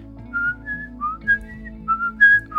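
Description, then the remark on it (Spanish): A person whistles a string of short, clear, bird-like notes, imitating the call of a crested tanager (tangara copetona), a red, crested bird, with brief pauses between phrases over a low steady background rumble. “escuchó un pájaro, le silbó, era una, una tangara copetona como un azulejo, pero rojo y de copete,”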